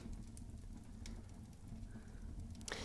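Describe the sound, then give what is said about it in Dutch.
A quiet wood fire crackles in a fireplace in a holiday cottage in the evening, with a few sharp pops scattered over a soft, steady hiss and low rumble. No voices are heard. “En het klinkt ook zo heerlijk. Het knettert een beetje.”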